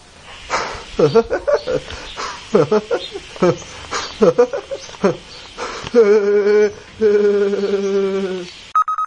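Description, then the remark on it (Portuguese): Someone imitates a woodpecker with a loud, rapid run of staccato vocal bursts in a bouncing rhythm, ending in a long, steady, high-pitched held note. “E agora eu vou imitar o pica-pau.”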